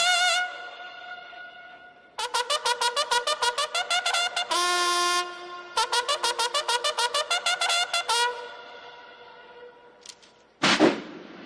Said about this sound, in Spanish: El ejército zapatista escuchó entonces un clarín marcial que sonó tres veces para llamar a honores.